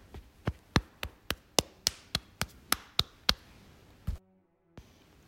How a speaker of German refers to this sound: Klopfe mit deinen drei mittleren Fingern leicht den Oberarm ab.